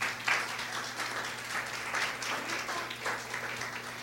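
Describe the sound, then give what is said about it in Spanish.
A room full of people applauds, a dense, steady patter of many hands clapping at once, sustained for several seconds with a low hum underneath and no one speaking. “Hagan un aplauso para ellos, por favor.”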